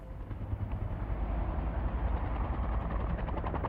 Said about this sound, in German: Und das heißt, der Hubschrauber kann Jule abholen.